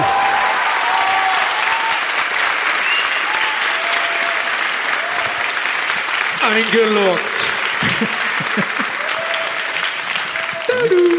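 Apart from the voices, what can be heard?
audience applause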